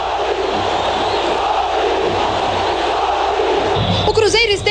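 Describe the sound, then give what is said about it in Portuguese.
A dense, roaring football stadium crowd cheers loudly and continuously after a goal by the Argentine Sorín, a broad wash of many voices, with a sharper burst of shouting rising near the end. “Festa do ídolo que enlouqueceu a torcida.”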